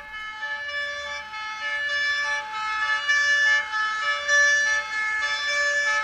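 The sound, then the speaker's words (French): Emergency sirens from police cars and ambulances wail steadily and loudly, growing a little louder as they arrive from all directions over a low rumble of traffic, with no voices. “Rapidement, les sirènes des voitures de police et des ambulances arrivent de toutes parts.”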